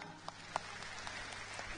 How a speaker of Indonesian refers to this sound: Jadi tepuk tangan buat Malaysia.